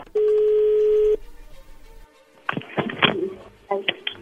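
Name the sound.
telephone being dialed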